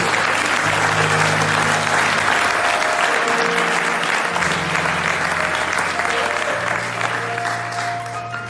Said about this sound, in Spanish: Un aplauso a Jesús.